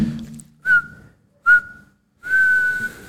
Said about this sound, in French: ouais, tu as vu le dernier coup de sifflet, ils ont bien fait